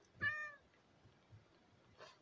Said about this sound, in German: Was macht die Katze hier?